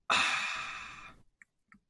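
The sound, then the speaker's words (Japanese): A breathy, airy burp lasting about a second, mostly a hissing rush of air rather than a deep croak, followed by two tiny faint mouth clicks. “またゲップする。”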